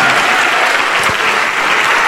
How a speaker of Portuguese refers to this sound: Vamos aplaudir mais o nosso Senhor Jesus. Vamos aplaudir muito ao nome do Senhor Jesus. Vamos glorificar o nome do nosso Senhor. Olha quanta gente, vamos aplaudir mais.